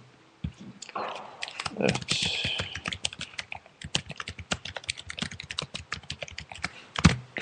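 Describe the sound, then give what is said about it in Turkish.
Rapid, uneven computer keyboard typing, a dense run of sharp clicks and key clatter with brief pauses and a few louder thumps, with faint background voice-like sounds. “Klavye ses sinirinden dolayı da özür diliyorum. Bazen hmm, çok ses çıkabiliyor.”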